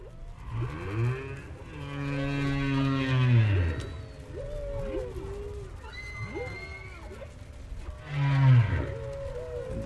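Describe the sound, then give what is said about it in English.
Humpback whale song recorded by Roger Payne at Argus Bank, about 30 miles off the coast of Bermuda: long, swooping moans and groans rising and falling in pitch, with higher whistling cries between, echoing underwater with no talking. “About 30 miles off the coast of Bermuda, humpback whales gather at Argus Bank.”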